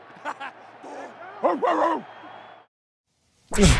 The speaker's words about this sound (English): Dog.